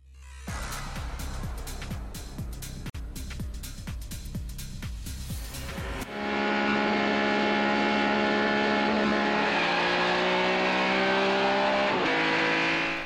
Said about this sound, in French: Ces images vous parlent ce mythique plan séquence de près de 9 minutes d'une voiture traversant Paris à toute blinde est l'œuvre du réalisateur Claude Lelouch. En 1976, il tourne C'était un rendez-vous.